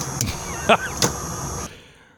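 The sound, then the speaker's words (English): Inside a Washington State Patrol car as a trooper signs off: a steady hum and hiss of the cabin and radio, broken by a few sharp clicks and a brief tonal chirp, before the sound cuts off into near silence. “So, State 1034, this is the last time you'll hear me in a State Patrol car.”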